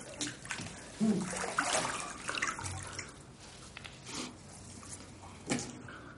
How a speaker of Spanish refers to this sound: Aclara la cuchilla en la bañera y se acuclilla de espaldas a Agatha.